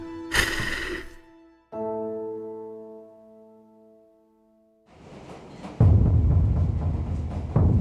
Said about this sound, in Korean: 지하철 안에 앉아 있는 이정은 혼자 뭔가를 생각한다.